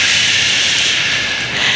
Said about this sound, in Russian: Сейчас, можно сейчас шум дождя такой?